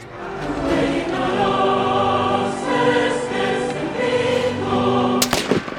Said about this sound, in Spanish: Las explosiones. El 19 de noviembre de 1984, la peor explosión de gas en la historia de México.